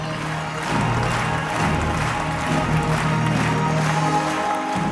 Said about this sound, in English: As the performers take a bow to rapturous applause, they unfurl a Ukrainian flag.